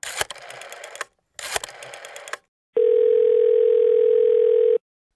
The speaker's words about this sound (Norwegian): I november så ringer plutselig telefonen til eh, Martin Edwards.